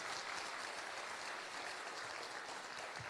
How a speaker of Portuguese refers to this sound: Uma salva de palmas pela vida da Cris.